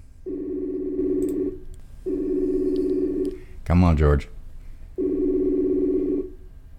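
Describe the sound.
An outgoing phone call rings three times, each long, steady electronic tone separated by a pause, while a voice briefly speaks between the second and third rings.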